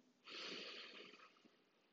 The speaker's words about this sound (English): So, to start today, I want to enter with a quick breathing exercise. So, we're just going to breathe in for three counts Hold it for two counts and then breathe out for three more. So on my count, let's go.